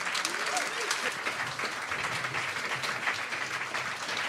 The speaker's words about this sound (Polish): Bijcie, bijcie im brawo! mocno i głośno, bo na to zasłużyli bardzo.